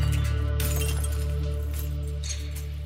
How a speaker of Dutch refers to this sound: En op een dag kwam hij helemaal zat thuis compleet beschonken, begon hij te tieren en smeet hij die kristallen gewoon kapot op de grond.